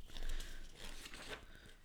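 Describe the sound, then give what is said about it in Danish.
Paper rustling and crinkling, a few soft, irregular bursts of handling over about two seconds, fairly quiet, with no one talking, as worn papers are taken out. “Du vil finde øh, en masse den, flotte den... papirer frem her.”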